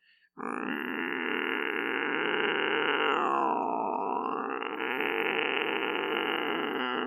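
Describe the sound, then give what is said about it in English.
Someone vocally imitates an annoying, demonic cat noise: one loud, raspy, strained yowl held continuously for about seven seconds, with no other sounds. “Making that super annoying cat noise,”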